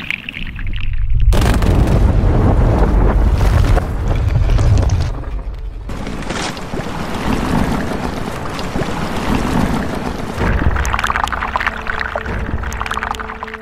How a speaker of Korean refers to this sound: 오늘의 소리는 빙하가 녹는 소리였습니다.